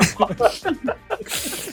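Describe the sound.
A person talks briefly, then a single sharp, breathy sneeze bursts out near the end, fairly loud.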